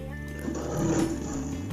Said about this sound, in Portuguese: Alexa, som do tigre. Esse é o som de um tigre.